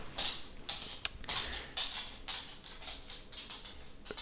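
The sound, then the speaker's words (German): The claws of a dog, Herr Doktor, click and clack across a hard floor in an uneven patter of quick, light taps, fairly soft, with no one talking. “Das äh, Klicker-Klacker ist Herr Doktor nicht wundern, falls man es im Hintergrund hört.”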